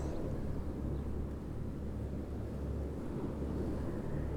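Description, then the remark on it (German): Steady wind by the sea rushes and buffets the microphone outdoors on a sunny day, a continuous low roar that stays loud throughout, with no voices and no breaks. “Hier ist aber heute auch schöner Wind, so auch der Wind bläst so durchs Energiefeld.”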